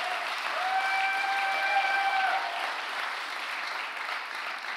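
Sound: audience applauding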